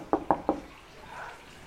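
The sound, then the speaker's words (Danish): Water poured into a paper cup in an office: three quick hollow glugs in a row, then a soft, brief trickle as the pour settles, fairly quiet, with no one speaking. “Der på bedste coronavis byder mig velkommen med en lap i vejret og vand i papkrus.”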